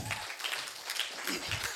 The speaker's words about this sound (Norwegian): Velkommen. Så gir vi en stor applaus.